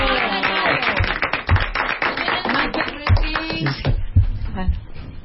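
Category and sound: crowd, applause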